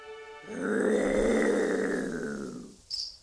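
A deep, rumbling growl of a giant monster swells and sustains for a couple of seconds before fading, heard in the distance at night, somewhat reverberant, followed by a brief higher-pitched hiss or snarl at the end.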